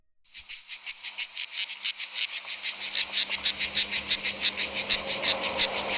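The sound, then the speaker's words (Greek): Loud cicadas buzz continuously in a dense, pulsing drone on a hot mid-August day in 1983 in an emptied city, the pulses repeating several times a second, with a faint low hum underneath. No one speaks. “Έσκαγε ο Τζίτζικας, η πόλη είχε αδειάσει, όλοι είχαν φύγει για διακοπές, εκτός από μένα.”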